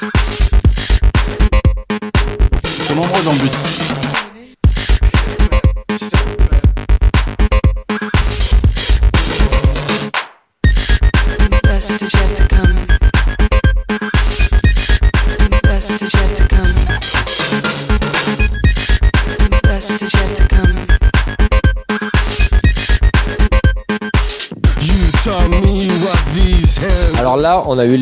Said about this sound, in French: Vous avez compris, il y a de l'acide, il y a des claps, il y a de la batterie saturée, il y a des gens qui parlent